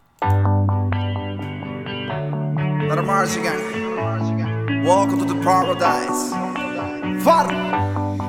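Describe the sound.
A Latin pop song plays loudly and steadily, with a bright melodic backing and a sung vocal line layered over it, slightly processed with echo and reverb.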